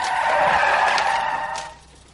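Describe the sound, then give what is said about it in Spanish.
A car swerves hard and crashes into another car, its tires letting out a loud, sustained high-pitched screech for about a second and a half before the noise abruptly drops away. No one speaks. “gira bruscamente. Se chocan contra otro coche.”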